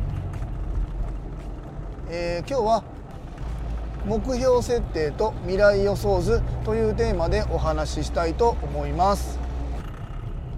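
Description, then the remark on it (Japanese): A low, steady engine drone from an old car being driven hums continuously beneath a man speaking into a wireless microphone, the rumble staying fairly loud and constant throughout. “すいません今日も今運転中にワイヤレスのマイクつけながら喋ってますのでちょっと音質が悪いかと思いますがあの車のねすげえブーンって音が鳴ってると思いますがすいませんあの古い車なんでね申し訳ございません”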